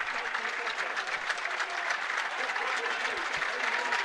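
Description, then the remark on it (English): A large crowd claps steadily in a dense, continuous roar of applause that holds at an even level throughout, with a faint murmur of voices mixed underneath. The crowd is applauding Kilkenny player Mikey Butler as he is substituted off late in a Kilkenny versus Dublin match. “Yeah, Mikey gets a great ovation.”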